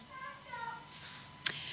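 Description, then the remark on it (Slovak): A baby cries faintly, a few thin wavering wails over a quiet background, followed by a single sharp click near the end. “Naše dieťatko plače, tak sekundu, Dobre.”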